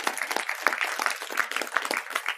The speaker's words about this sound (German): Das erste ist unsere Band. Ich finde, die sind einfach ein mega Segen äh, für diesen Gottesdienst. Vielleicht geben wir dem mal einen fetten Applaus.